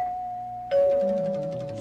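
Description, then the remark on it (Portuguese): A two-note ding-dong doorbell chime, the listener doorbell jingle of Mirante radio: a sustained higher tone, then a brighter struck lower tone that rings on and slowly fades. Loud, with no voices. “Campainha do ouvinte da Mirante.”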